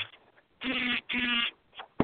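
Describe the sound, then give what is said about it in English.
A mobile phone, plugged in, vibrates with notifications in two loud, rasping buzzes, each lasting under half a second with a brief pause between them, followed by faint rustling. “I had it plugged in, and it's uh, pain in the ass. It was vibrating.”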